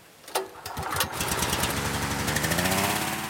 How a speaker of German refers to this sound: Dann kommt der große Ventilator zum Einsatz. Der schaufelt Luft in die Hülle und per Propangasflamme wird die Luft angewärmt.